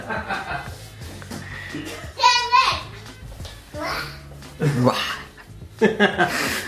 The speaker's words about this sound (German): Hörer von Airtime Radio kennen das tatsächlich schon, dass meine Katzen immer mal wieder zwischendurch ein bisschen eskalieren.